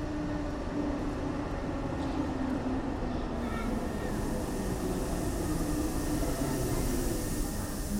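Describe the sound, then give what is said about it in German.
An S42 Ringbahn S-Bahn train arriving on track 12 at a station platform rumbles steadily, a dense low roar with faint squeals and hiss above it, holding at the same loudness throughout without any voices. “Angefahrener Zug auf Gleis 12, S42, Ringbahn über Hermannstraße, Neukölln, Ostkreuz.”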